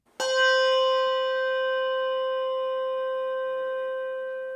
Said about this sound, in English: Malmark bell, no tang.